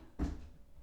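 A cat named the Duke jumps down from his high chair, landing with a single soft, dull thump that fades quickly against a quiet background, with no one talking.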